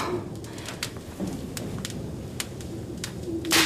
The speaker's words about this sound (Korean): 거칠게 창을 두드리는 바람 소리가 내 뺨이라도 때려줬으면 좋겠다.